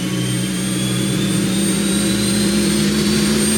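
Centrifuges spin up with a loud, continuous roar like a jet engine: a deep rumbling drone under steady whining tones that creep slowly upward in pitch, with no voices.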